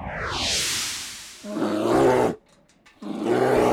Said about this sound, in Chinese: 哦，这是熊 bear 的声音。